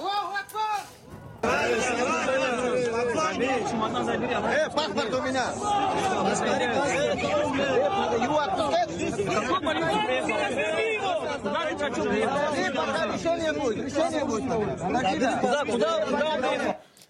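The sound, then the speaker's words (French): A dense, agitated crowd of many overlapping voices shouts and clamors loudly and without pause after a brief quieter opening, the babble surging in a chaotic, rising din throughout, as a mob at an airport hunts Jews arriving on a plane from Tel Aviv and believes it has caught one of them. “À un moment, la foule pense avoir mis la main sur l'un d'entre eux.”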